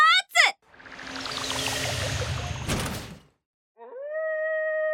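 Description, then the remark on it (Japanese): A long, steady Falkland wolf howl rises and holds near the end, following a loud rushing whoosh of noise; brief high yelping cries sound at the very start. Falkland Islands, 200 years ago. “わあ博士狼だ怖いよ大丈夫大丈夫今は宇宙船の中にいるからねここからフォークランド狼をよく見てみよう”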